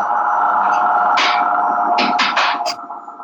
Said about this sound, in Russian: Кофемашина выключается, извините, сейчас она выключится.